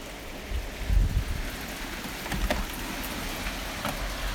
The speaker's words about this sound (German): Wow, so ein Regen ist schon cool. So ein Regen ist cool.